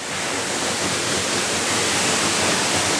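A waterfall roars steadily, heard from a cave under a rock overhang behind the falling water: a dense, unbroken rush of falling water with no pauses and no voices.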